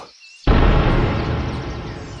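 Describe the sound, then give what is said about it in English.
A heavy door slams shut once after a short, quiet lead-in: a sudden loud booming thud whose deep rumble lingers and slowly fades, with no voices present. “The door shuts behind you.”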